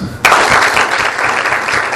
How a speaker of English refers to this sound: Are you ready? Okay, here we go. Ready? Simon says, Clap your hands.